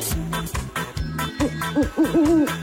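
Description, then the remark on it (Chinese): An owl hoots in a quick series of low, rhythmic calls, followed by a few higher, swooping hoots that rise and fall in pitch, all fairly loud and with no talking. “找到猫头鹰了，再找找其他的动物。”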